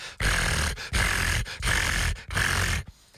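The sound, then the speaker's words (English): A person imitates a kitten's loud purr with four rumbling, breathy bursts in a steady rhythm, each separated by a brief pause, with no talking. “I don't know if all kittens are like this, but this kitten has the loudest purr I've ever heard.”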